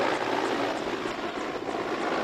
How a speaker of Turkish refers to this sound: Yangın söndürme helikopteri şu anda su havuzundan su aldı ve yavaş yavaş yükseliyor. Alevlerin çıktığı noktaya doğru ilerliyor.